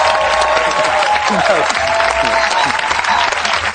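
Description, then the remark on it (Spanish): Steady, dense applause welcoming guest director and screenwriter Nacho Vigalondo on a show fills the whole few seconds at an even loudness, with some indistinct voices mixed in among the clapping. “Me da un poco de vergüenza, me puse a aplaudir yo.”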